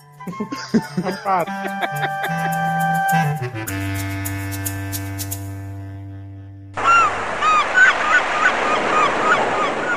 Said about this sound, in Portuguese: Se em meia hora de jogo você não descobrir quem é o pato da mesa, é porque o pato é você. Isso aí, quá, quá, quá.